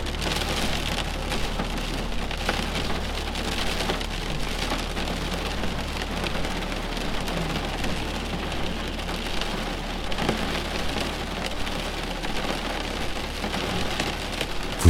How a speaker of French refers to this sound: Doucement, la pluie s'intensifie et vous entendez les gouttes rebondir sur la maison et sur la fenêtre.